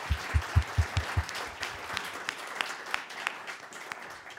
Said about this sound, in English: Um, as we prepare and before we um, and before we announce the winners, uh, can we give our competitors one more round of applause? You both did such a great job.